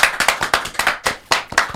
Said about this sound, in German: meine Damen und Herren, einen Applaus für Agit Kabayel.